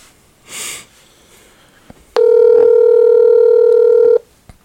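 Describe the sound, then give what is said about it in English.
A short sniff, then a quiet pause before a loud, steady telephone tone sounds for about two seconds and cuts off, like a single ring heard through a phone line, from a call being placed to Texas. “Let me see if this nigga answered the phone.”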